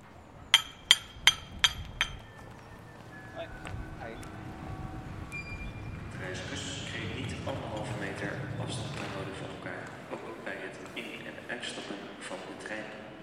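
A street paver's hammer taps on paving stones on the Voorhout: four or five sharp, ringing knocks in a quick, even rhythm. The tapping then stops, leaving a softer, steady outdoor background on the otherwise quiet street.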